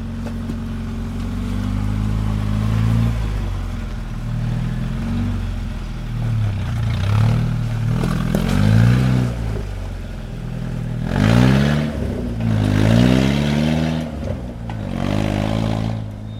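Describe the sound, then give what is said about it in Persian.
A pickup truck pulls away and keeps driving along a side road toward the mountain, its low engine hum rising and falling through several loud revs and gear changes over a steady rumble, with no voices. “راه افتادم و تو مسیر فرعی به سمت کوه حرکت می کردم.”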